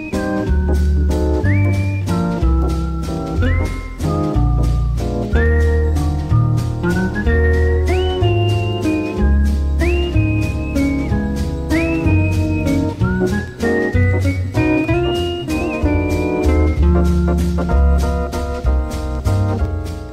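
A Belgian harmonica player, having taken the harmonica from his mouth, whistles a lilting jazz waltz melody over a full band accompaniment, the bright whistled line gliding and sliding between notes steadily throughout, with no talking.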